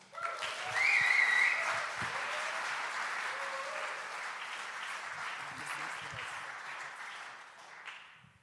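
Sustained audience applause, a dense wash of clapping that swells loudest in the first two seconds and holds steady before easing off at the end, with faint cheers over it.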